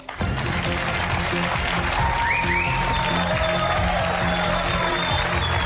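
Sustained, dense applause from a large studio audience on the Spanish TV show El Intermedio, welcoming a new reporter, fills the whole stretch, loud and steady, with faint whistles and cheers rising above the clapping.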